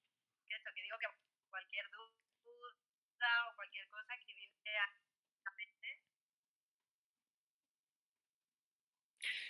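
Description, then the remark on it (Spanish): Thin, tinny phone-line voice comes through in choppy, garbled fragments, cutting in and out because of overloaded network problems, before dropping to several seconds of dead silence, then a brief burst of sound returns at the end. “No sé qué pasa, está habiendo problemas con las redes.”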